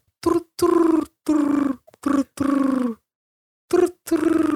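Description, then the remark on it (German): A person mimics a pigeon's cooing with a series of low, throaty, rhythmic hoots, several voiced bursts in a row with a short pause before the last couple, fairly loud. “Ich habe ich hab so eine Taube vor meinem Fenster jahrelang gehabt, ja. die immer den gleichen Sound gemacht hat.”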